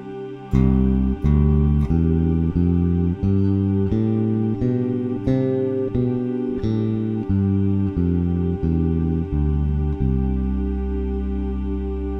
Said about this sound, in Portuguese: Então, vamos voltar para o tom de Dó eu vou soltar uma trilha aqui onde tem um teclado tocando um acorde de dó e vou tocar a escala de dó. Olha só que interessante.